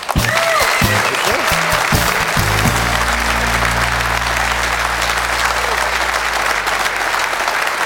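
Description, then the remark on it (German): Loud, dense applause from the audience of a football TV talk show with Stefan Effenberg, a steady wash of clapping that holds strong for the whole stretch, with a low musical tone swelling in underneath after the first few seconds. “Und jetzt, Stefan, musst du tapfer sein, denn der Applaus für sie ist immer noch lauter.”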